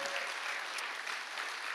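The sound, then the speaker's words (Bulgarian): Scattered applause from five people at the back, a steady patter of claps with no voices over it, moderately loud and continuous through the short moment. “Благодаря на пете човека, които ръкопляскат там отзад.”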